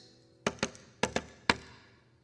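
Five crisp knocks on wood, fairly loud, in an uneven rhythm: two quick raps, a short gap, two more, then a single final knock. No talking.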